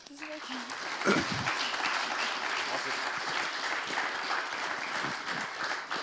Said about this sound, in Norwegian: Dere skal få lov til å gi dem en god applaus.